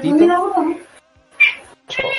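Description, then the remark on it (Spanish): A cat meows loudly while being given food: a long, wavering meow, then a short, higher cry, then another meow starting after a brief pause. “Está pasando con este gato, Le está dando comida.”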